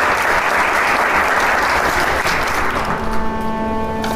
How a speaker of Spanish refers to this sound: Entra el maestro con concertino vale Estebanet, pide el aplauso y no se deja esperar.